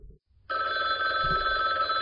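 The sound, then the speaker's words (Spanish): A telephone rings loudly and steadily, its bright electronic trill starting abruptly after a brief low murmur and continuing without pause. “Ahí me sonó el teléfono.”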